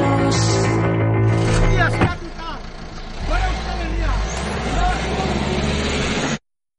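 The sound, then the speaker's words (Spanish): Steady low engine rumble and road noise from inside a moving police car, with a sharp shift after a couple of seconds and muffled voices murmuring over the drone until it cuts off. “En el interior del coche policial.”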